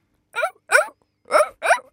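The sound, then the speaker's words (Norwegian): A person imitates a seal with four short, barking vocal bursts in two pairs, each harsh and nasal with a rising-falling pitch, loud against silence. “Og du skal få lov til å starte med lyden av en sel.”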